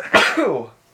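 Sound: sneeze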